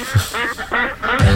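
A duck quacks three times in quick succession, nasal and fairly loud, with a couple of low thumps at the start and end.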